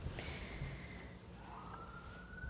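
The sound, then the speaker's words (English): An emergency siren wails steadily, its tone sliding slowly up and down over a low rumbling background, faint but clearly audible with no one talking. “sorry about the sirens”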